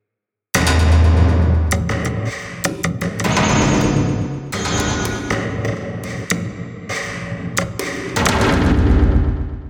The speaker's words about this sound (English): The wall sections close in, sandwiching around their bodies. A series of heavy machine sounds can be heard, along with some whirring and clicking.